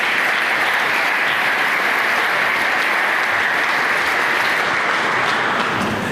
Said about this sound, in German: Da ist er. Herzlichen Applaus. Los geht's.